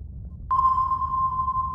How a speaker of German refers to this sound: Von einem Schiff aus werden dabei Schallsignale zum Meeresgrund geschickt. Die Zeit, die der Schall braucht, um als Echo wieder hochzukommen, verrät die Meerestiefe.